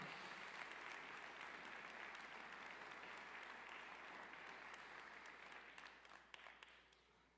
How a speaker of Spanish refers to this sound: Si vas a aplaudir, apláudele bien. Wow.